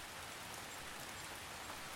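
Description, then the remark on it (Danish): Steady rain falls continuously, a dense hiss of drops pattering on a surface, even and unbroken throughout, with no voices. “Han har været ude at gå en tur i det dejlige regnvejr og er nu på vej hjem.”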